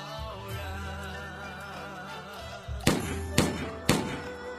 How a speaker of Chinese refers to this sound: 这些莫名其妙的枪声是哪里来的？